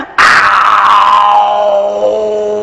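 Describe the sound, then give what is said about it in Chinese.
A man's voice, telling a story, imitates a striped fierce tiger leaping out from behind a rock, in one long, loud, rough growl that starts abruptly and slowly falls in pitch as it fades over a couple of seconds. “嗷，窜出一只斑斓猛虎。”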